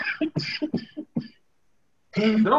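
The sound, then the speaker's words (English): A quick string of about six sharp, raspy coughs in fast succession, then a brief pause before a voice picks up again. “cough up a lung.”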